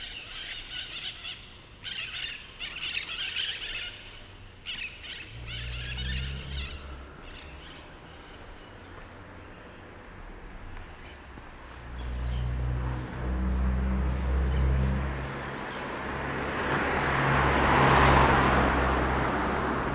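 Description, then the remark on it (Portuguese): Street ambience on Rua Primavera with passing traffic rumbling and swelling, scattered high chirps and squeaks like birds, and a sharp squeal rising toward the end; no one speaks. “E depois desse quarteirão na Carangola, subindo, é, nós vamos chegar aqui à rua que eu considero talvez a rua mais interessante desse circuito que eu faço, que é a Rua Primavera.”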